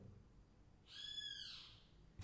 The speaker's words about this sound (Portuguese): Tem um pássaro que parece estar tá dentro da minha casa. Olha isso. Eu moro do lado de um parque, entendeu?